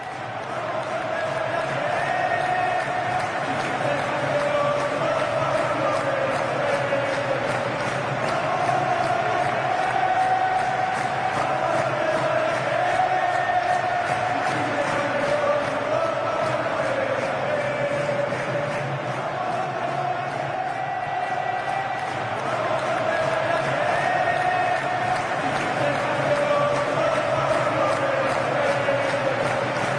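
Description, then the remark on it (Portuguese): A large crowd sings a football club anthem in unison, a steady, loud wall of voices holding sustained melodic lines, with stadium noise and scattered shouts underneath throughout. “Tiene música condizente com, com, com esse orgulho, a música que ilustra todo esse orgulho.”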